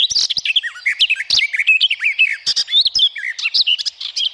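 A garden warbler, a bird twice as heavy as a blue tit, pours out a fast, continuous warbling song of rich, bubbling phrases with no pauses. It sounds fairly loud, with no voices over it.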